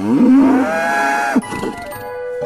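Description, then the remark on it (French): A cow moos once, a long, loud, rising and sustained low call lasting over a second, followed by quieter ambience with a few soft shuffles. “C'est que Michel était agriculteur et que, comme il aimait à le dire, les vaches, elles, elles n'en prennent pas de vacances.”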